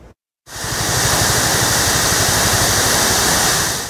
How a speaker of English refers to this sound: Fintry Falls near Okanagan Lake is as picturesque as it is popular. But one Alberta man's photography efforts this weekend ended in a rescue mission after he fell over the waterfall. He was at the bottom of about a 130 foot waterfall.